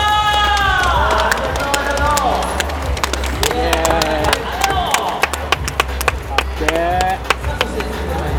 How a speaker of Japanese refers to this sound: でかい拍手お願いします。